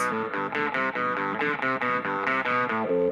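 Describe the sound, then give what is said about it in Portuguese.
Two isolated overdriven electric guitar tracks play together, chugging out steady, rhythmic chords with a gritty, saturated tone. The playing is loud, with no voices. “As duas.”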